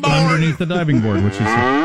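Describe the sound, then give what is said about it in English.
A cow sound effect: a cow moos loudly, one long, low, drawn-out call whose pitch wavers and bends as it carries on for nearly two seconds. “so that was the sound of a cow and a splash is what that was.”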